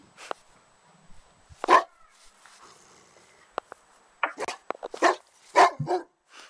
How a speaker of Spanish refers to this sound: Ahí está el ladrido. estamos ladrando. Pienso que es un, lad- un ladrido de ataque y en realidad no queremos atacar